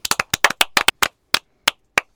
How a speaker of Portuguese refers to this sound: Palmas.